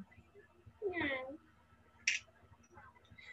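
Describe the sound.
A person imitates a cat's meow once, a drawn-out rising and falling vocal cry, followed by a sharp short click and faint background chatter.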